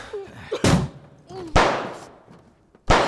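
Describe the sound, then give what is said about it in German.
Three loud, sharp gunshots blast through a bedroom door at uneven intervals, from a woman with a gun inside the bedroom, each with a short booming tail, while faint voices murmur in the gaps between them. “Die hat eine Knarre da drin.”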